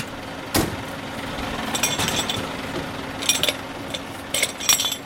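A fire truck engine idles steadily while bursts of metallic clinks and clatters come in irregular clusters as Karlsruhe fire department firefighters roll up hoses and pack up equipment at the end of an exercise, after a fire in a shipping container was put out.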